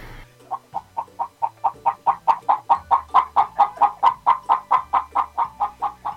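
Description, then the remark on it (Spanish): A hen clucks steadily, a rapid run of about twenty short, evenly spaced clucks that start soft and grow louder, with no voices present. “Gallina.”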